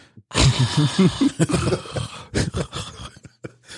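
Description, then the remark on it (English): A voice imitates children's heavy, wet mouth breathing from behind a shut door, a run of loud raspy huffs with some voiced grunting, tapering into softer breaths near the end. “My kids are mouth breathers. That's what that noise was.”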